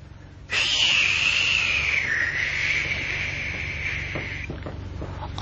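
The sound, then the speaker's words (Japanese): Wind blowing at night with a high, whistling howl that starts suddenly and holds for about four seconds, its pitch wavering slightly over a low, steady rumble before it fades out. “風の音がする。”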